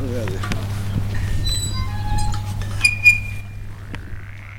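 A chorus of frogs croaks and trills steadily from an overgrown pond, several calls overlapping, heard from afar over a constant low hum.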